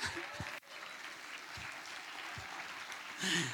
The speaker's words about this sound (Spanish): Denle, un aplauso a Dios.